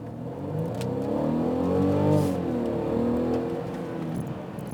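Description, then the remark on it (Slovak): A car with EQ Boost revs steadily as it accelerates, its harmonic drone rising and falling in pitch over a few seconds, fairly loud with no speech. “Áno, má to EQBoost, ono to je výkonné, ono to ťahá strašne dobre. A ešte to má naviac aj dobrý zvuk”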